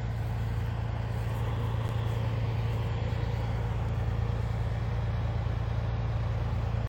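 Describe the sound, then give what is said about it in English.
A heavy truck in the trucker convoy at Ottawa, Canada rumbles steadily, a deep low drone under constant road and motor noise that holds at the same loudness throughout, with no one talking. “And I don't know if you recognize that truck, but pretty significant truck through this in this in this convoy.”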